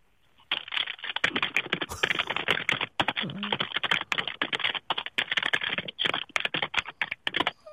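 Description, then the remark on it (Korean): A caller on a KBS radio show hammers computer keys angrily to show off her rage: rapid, forceful clatter, dense bursts of hard keystrokes for several seconds with barely a pause, no voices. “분노의 자판 소리 한번 진짜 분노가 느껴지도록 한번 보여 주시기 바랍니다.”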